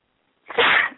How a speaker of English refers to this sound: Ooh, I've got a sneeze. Oh, it passed,